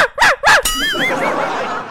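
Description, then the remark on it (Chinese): A man imitates a dog, barking three times in short, sharp, harmonic yelps in answer to a question, followed by a wavering, warbling high-pitched tone that trails off like giggling. “那狗真的连叫了三声”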